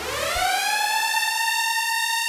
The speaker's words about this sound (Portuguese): Soem os alarmes, peguem as crianças, o máximo de comida e fujam para as montanhas